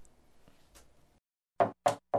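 Three loud, evenly spaced knocks on a door, each a sharp thud, following a second of low, faint background murmur; a visitor knocking in a staged skit to deliver a letter from home.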